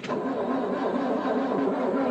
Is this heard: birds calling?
no